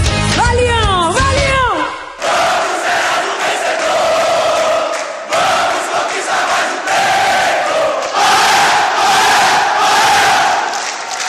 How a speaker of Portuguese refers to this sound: E com esse grito da torcida do Bahia, Samba da Minha Terra faz brevíssimo intervalo e volta já já com mais paixão clubística dos nossos sambistas.